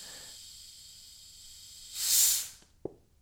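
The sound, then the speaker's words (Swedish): A Coca-Cola Zero bottle is twisted open right into a microphone, releasing one sharp, loud burst of hissing gas followed by a small click, with a faint steady hiss before it and no talking. “Det där var alltså ljudet av en Coca-Cola Zero-flaska yeah.”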